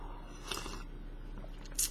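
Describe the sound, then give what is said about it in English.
Someone takes a quick, quiet sip of tea, with a soft slurp followed a moment later by a small wet swallow or click. No one speaks. “Let me take a quick sip of my tea here before we get started.”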